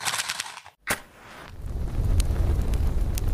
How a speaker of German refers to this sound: Ich mache noch schnell das Lagerfeuer an und dann legen wir los.